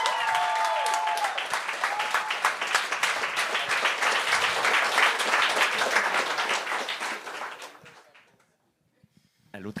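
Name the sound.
audience applause and cheering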